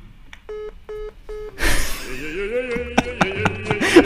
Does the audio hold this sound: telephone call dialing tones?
yes